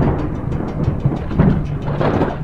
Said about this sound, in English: On that unnaturally humid and sunny afternoon, thunder ominously clapped from heavy storm clouds that loomed off in the distance.